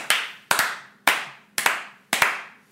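Hands clap in applause in a steady, even rhythm, roughly two sharp claps per second, each ringing briefly. The claps are moderately loud, with no voices.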